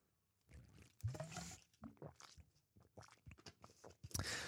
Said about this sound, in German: Wenn ich es noch versucht, extra laut zu trinken, damit ihr es auch hören könnt.